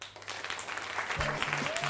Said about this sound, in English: I think another theme that's come up has basically true honesty, people being honest in front of a room full of strangers, which I think deserves a round of applause.